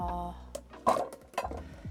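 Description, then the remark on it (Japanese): Metallic clanks from a large cooking pot being handled while cooking after chopping onions, two louder knocks about half a second apart with a ringing resonance, over a low background hum. “この鍋でいけるかっちゅう話なんですけどいけるかないけないな大きい鍋使いますね”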